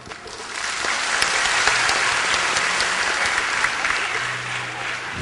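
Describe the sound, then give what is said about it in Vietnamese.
A crowd of people at a camp gathering claps steadily and loudly throughout, a dense wash of applause that holds its level from start to finish without voices rising above it. “vỗ tay giòn giảm như là một sự cảm thông về à, cái bản lĩnh của một người bạn trong trại của chúng ta đã nói lên cái hoàn cảnh của bản thân mình”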